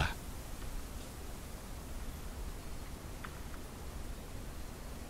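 Steady bamboo forest ambience with a soft, continuous rustling hiss, like wind moving through leaves, and a few faint brief crackles partway through. No voices, just an even, calm wash of sound.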